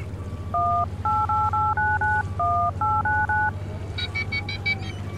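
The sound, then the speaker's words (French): A quick run of about ten telephone keypad beeps, each a short two-tone blip pressed in steady succession as someone dials a number to place a call, over a constant low engine-like hum, followed by a few brief higher electronic tones. “Bon, bon, bon, t'as le numéro quoi Bah non, moi j'ai pas. Ah, bon, j'appelle.”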